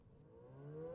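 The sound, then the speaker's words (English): A civil defense siren, sounding as a drill, winds upward in pitch with a steady, rising wail that grows louder over the second, heard alone with no voices. “Oops, folks, I don't know if you can hear the siren going off in the background, but please rest assured that it is simply a drill of some kind.”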